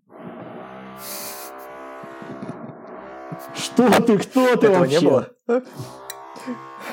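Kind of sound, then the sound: tool, power drill drilling nearby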